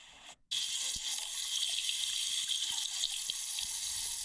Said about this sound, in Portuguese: O homem está tipo a, a, a, limpar a mão com água.